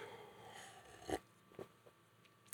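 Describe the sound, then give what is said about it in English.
Quiet sipping of beer: a couple of soft wet slurps and a gulp, spaced out over a couple of seconds with a faint hiss between them and no talking. “Now I'm going to have a sip.”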